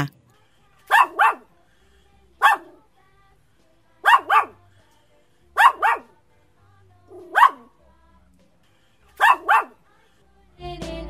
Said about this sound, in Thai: เสียงนี้เข้าเครื่องแปลภาษาสุนัขมาเรียบร้อยแล้วล่ะค่ะ เจ้าโกโก้บอกว่า สุนัขอย่างเขาเนี่ย เป็นผู้ฟังที่ดี